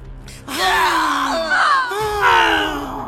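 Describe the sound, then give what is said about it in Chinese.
A woman's shrill, wailing scream coming from the grey building rises sharply, wavers in pitch, breaks briefly, then resumes in a second piercing cry, loud and sustained over about two and a half seconds. “女人的凄厉尖叫声再次由回楼发出，阵阵的响起，刺耳的同时又让人心生胆触，真真的告诉你什么叫鬼哭狼嚎。”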